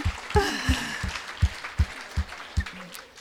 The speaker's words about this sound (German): Oh, ja, gib mal Jesus einen Beifall.